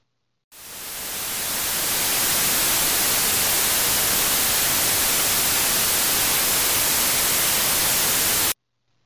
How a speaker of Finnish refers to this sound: Valkoinen kohina tarkoittaa satunnaisia äänisignaaleja arvottuna tasaisesti kaikille eri taajuuksille. Valkoinen kohina kuulostaa tältä.